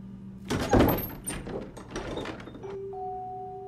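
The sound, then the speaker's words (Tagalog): A bedroom door suddenly bursts open with a loud thud and rattle, followed by a few scattered knocks and clatters, then a low sustained tone lingers as it settles. “Biglang bumukas ang pintuan ng kwarto ni Lolo Itong.”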